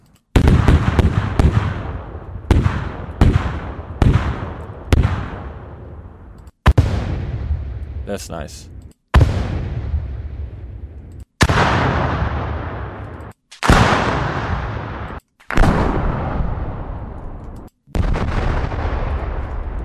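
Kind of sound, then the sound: sound effect, explosion sound effects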